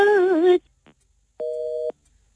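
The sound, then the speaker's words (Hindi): A phone busy tone after a caller's call cuts off: a brief wavering electronic sound, then steady half-second beeps repeating with pauses between them, clear with no one speaking. “sorry जी मैंने नहीं काटा ये मैंने बिल्कुल नहीं काटा है मैंने बिल्कुल नहीं काटा दोबारा कर लीजिएगा फोन”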